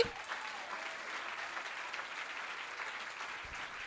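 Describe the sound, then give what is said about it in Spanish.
An audience applauds God steadily for several seconds, a dense, even wash of many hands clapping together with no voices rising above it. “¿Habrá alguien que aplauda a Dios aquí?”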